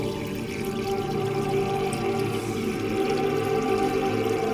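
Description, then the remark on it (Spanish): Water runs steadily into a bathtub, a continuous rushing pour with a hollow, resonant ring as the tub fills, holding even volume throughout with no voices. “Porque el ruido del agua llenando la bañera se escapa desde adentro.”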